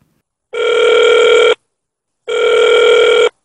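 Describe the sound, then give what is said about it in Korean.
Two long, steady electronic ring tones of a phone line as a broadcast calls a co-chair of the 6.15 South Committee press headquarters, each about a second, separated by a short pause. The tones are clear and fairly loud, with no voices present. “6.15 남측위원회 언론본부 공동 상임대표를 전화 연결해서 이 이야기를 들어보도록 하겠습니다.”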